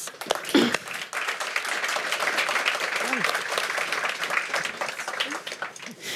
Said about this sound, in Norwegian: Gi dem en applaus.